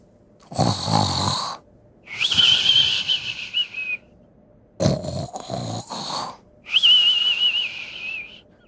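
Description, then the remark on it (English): A guard snores loudly while on the toilet, two full breaths: each harsh, rattling inhale is followed by a high, wavering whistle on the exhale, with short pauses between. “Of the guard snoring on oh, the toilet.”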